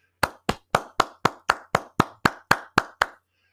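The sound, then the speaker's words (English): Steady clapping as a round of applause for college football and other sports, about a dozen sharp, evenly spaced claps at a brisk even pace, like one person's hands applauding alone, with no voices. “Round of applause.”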